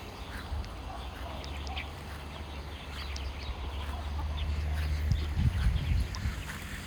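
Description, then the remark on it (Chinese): A female duck quacks in short, scattered bursts over a steady low rumble, the calls growing a little louder and busier toward the end. No one speaks. “这傻瓜母鸭子很好玩的。”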